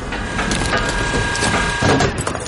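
A tank shell slams into the corner of a house, unleashing a dense, sustained roar of crashing, splintering debris with a couple of sharper cracks amid the rumble.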